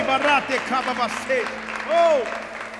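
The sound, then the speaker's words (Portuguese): A church audience claps and shouts in worship in a dense, steady roar, voices crying out in loud, rising and falling cries, several overlapping exclamations standing out above the applause. “Dê um brado a ele e aplaudo nesse lugar e adore.”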